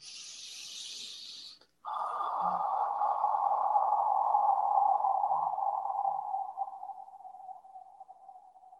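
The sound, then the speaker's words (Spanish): A voice imitates breathing into the ear: a short, sharp hiss, a brief pause, then a long, airy, watery whoosh that slowly drops in pitch and fades over several seconds. “Entonces ella lo que hizo fue me puso la mano eh, en mi corazón y me respiró con respiración de agua en el oído. Así me hizo.”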